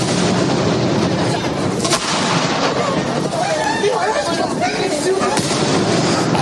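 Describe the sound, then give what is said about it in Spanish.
A dense, continuous barrage of gunpowder blasts at a town festival celebration in Spain, sharp cracks and booms overlapping without pause, loud, with a noisy crowd murmur running underneath. “Así suenan en muchos lugares de España las celebraciones.”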